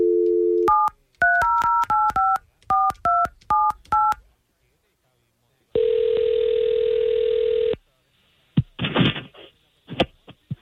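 A brief dial tone gives way to a quick string of about eleven touch-tone beeps as a morning radio show at station K92.3 places a call. After a pause comes one long ringback tone, then clattering handling noises as the line picks up.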